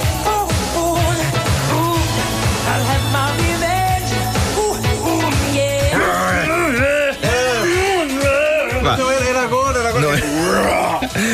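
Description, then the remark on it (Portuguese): A pop song plays loud and full, with a male singer pushing certain notes out in a throaty, guttural growl over a dense band backing, the vocal swoops growing busier in the second half. “Eh, ele usava a garganta para carregar em certos sons.”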